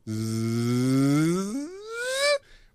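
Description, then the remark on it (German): A single voice hums a close, buzzy drone in imitation of bees, sliding steadily upward in pitch for over two seconds before stopping abruptly. “Denn ich stelle mich daneben und auf einmal höre ich nur”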